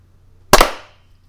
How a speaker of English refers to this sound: at the very end, it would do the exact same thing, and it would be just as easy as clap syncing at the beginning.